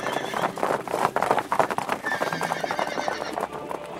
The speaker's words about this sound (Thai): วันหนึ่งมีรถม้าชันเลิศมาจอดอยู่ที่ด้านนอกฟาร์ม